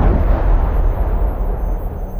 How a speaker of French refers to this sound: Au bout de plusieurs kilomètres, il sent que l'orage est loin et il sort de sa voiture, mais la foudre s'abat à nouveau sur lui.